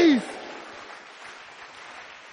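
During a prayer, an audience is told to clap their hands and shout 'release'; they clap in a steady, dense wash of applause that holds at an even level, opening with a brief loud vocal cry that quickly falls in pitch.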